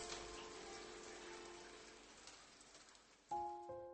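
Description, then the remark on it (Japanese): Steady rain falls and patters across a surface in a continuous wash, with no voices, in a scene of the original voice drama "Endless Refrain"; near the end a brighter tonal hum cuts in abruptly over the rainfall. “降り続く雨の中彼女はまだそこで。”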